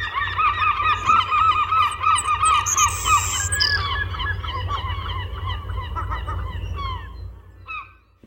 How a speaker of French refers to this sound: Elle fait suite à ma demande d'entrevue par gazouillis sur Twitter en me communiquant des gazouillis bien réels, ceux des oiseaux qu'elle étudie.